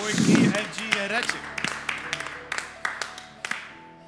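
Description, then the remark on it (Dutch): Scattered audience applause at a live library event, introducing the next musical number, with irregular, sharp hand claps that thin out and grow sparser over a few seconds, opening with a brief voiced cheer. “Mag ik een applaus?”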